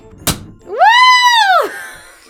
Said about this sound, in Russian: бутылку на микрофон не направляй лучше. Ну, в, в целом, да. Итак, очень общем, я технику безопасности, э, дамы и господа. Это самое непраздничное открывание шампанского.